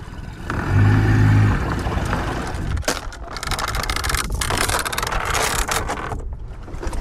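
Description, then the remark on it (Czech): A boat engine drones low and steady as the boat returns to moor at the pier on Coconut Island, with rushing water and wind noise building into a rough, crackling wash as the motor keeps running. No one speaks. “Tak a jsme zpátky na molu a kotvíme na Kokosovém ostrově.”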